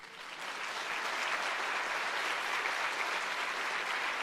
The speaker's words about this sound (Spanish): Eso merece un aplauso a nuestro Dios.